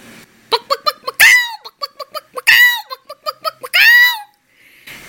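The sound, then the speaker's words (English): A human voice imitates the noise of a hen in heat: rapid staccato clucks broken up by three drawn-out, strained squawks, loud, with no speech around it. “Well, a neighbor once told me how a hen in heat would make a noise”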